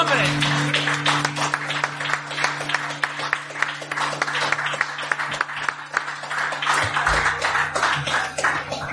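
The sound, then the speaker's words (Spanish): Loud, sustained applause from a crowd, dense overlapping claps that keep a steady intensity for the whole stretch, with a low hum running underneath. “Se aplauso fuerte, hombre.”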